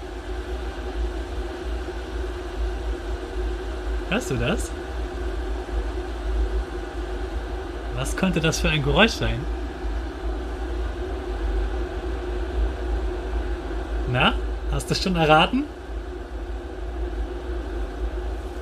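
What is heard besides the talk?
water boiling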